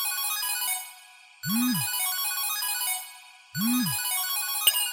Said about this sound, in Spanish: Espera, Jake, ¿qué es ese sonido? Es un mensaje de voz. ¿Alguien nos envió uno?